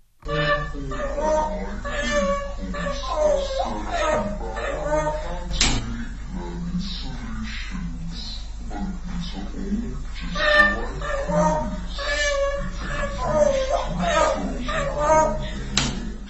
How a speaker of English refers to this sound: when he gets to the clap your hands part, he bashes his beak against the bar he's sitting on for the amusement of his human listeners because he's so happy and funny.